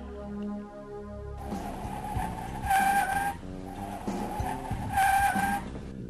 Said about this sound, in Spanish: Así no se oye en la, así no se oye en la tierra, güey. No, ah, sí es cierto, el chille que llanta quemada.